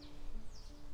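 Faint birds chirp a couple of times in a garden in the morning over a quiet outdoor background with a low steady hum, no one speaking.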